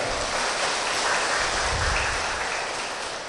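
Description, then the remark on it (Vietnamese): An assembly at a Buddhist dharma hall claps steadily to welcome a young venerable monk lecturer, a dense, continuous wash of applause, loud and even throughout with no voices over it. “xin đạo tràng dương cao thêm một tràng pháo tay nữa”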